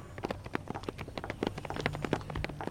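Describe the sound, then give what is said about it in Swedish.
A woman's high heels click sharply on the asphalt of a parking lot in a quick, steady run of footsteps, fairly loud, with no one speaking, on a foggy evening just after sunset under streetlamps. “Vi hörde hennes klackar över asfalten.”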